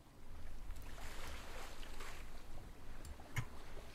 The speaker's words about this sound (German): dass ihr dann zwischendurch auch so ein bisschen das, das Feeling bekommt, was denn jetzt eigentlich auf dem Schiff äh, so los ist.